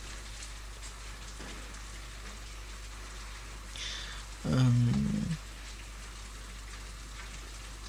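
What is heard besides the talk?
rain falling at night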